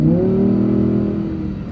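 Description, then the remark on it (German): A car's exhaust, just switched to its louder setting, revs loudly, a deep rumbling engine note that rises and holds steady before easing slightly, with no talking over it. “warte, ich mache mal eben den Auspuff lauter, ja?”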